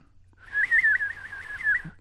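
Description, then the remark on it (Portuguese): A person whistles a short warbling, trilling tune in imitation of birdsong, wavering rapidly up and down for under two seconds, fairly loud with no talking. “eu sei fazer passarinho, passarinho eu sei.”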